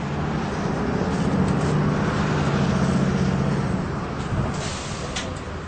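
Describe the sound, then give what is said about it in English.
A bus taking passengers to a musical is stuck in a traffic jam and idles in a steady low hum, with a constant wash of surrounding traffic noise that holds at an even level throughout, moderately loud. “The bus Philip has taken to the musical is stuck in traffic.”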